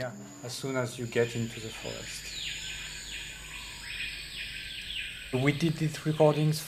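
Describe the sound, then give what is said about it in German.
A group of male screaming pihas in tropical rainforest in French Guiana, South America, give repeated, rising whistled calls that swell and fall over dense, buzzing rainforest ambience, with a person talking before and after the calls. “Im Vordergrund, das ist eine Gruppe männlicher Schreipias, eine ganz charakteristische Vogelart.”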